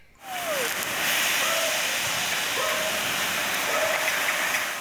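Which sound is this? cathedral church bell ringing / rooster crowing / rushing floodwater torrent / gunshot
rushing floodwater torrent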